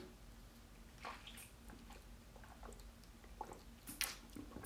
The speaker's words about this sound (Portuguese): Eu não sei o quanto esse microfone é bom, mas se ele conseguiu pegar a água descendo na minha garganta, se você realmente ouviu isso, significa que ele é um dos bons.